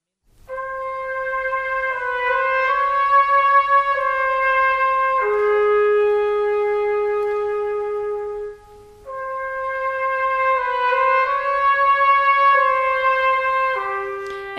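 An orchestral film-score waltz melody plays on its own, smooth sustained instruments carrying a lilting theme at a steady, fairly full volume, with a brief dip before the phrase resumes.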